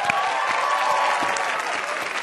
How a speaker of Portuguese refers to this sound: Recebam nossas ilustres convidadas com seu melhor aplauso.